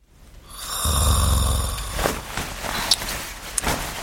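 A sleeping man snores softly, one low, rasping drawn-out snore up close, trailing into quiet breathing with a couple of faint soft thumps afterward. No one speaks.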